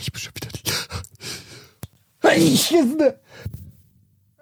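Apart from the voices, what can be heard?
human sneeze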